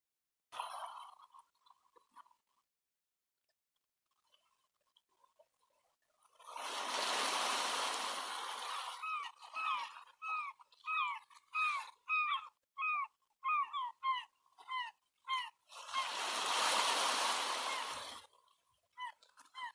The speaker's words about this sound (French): La mer